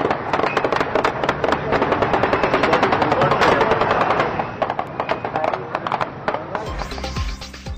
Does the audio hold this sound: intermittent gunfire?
yes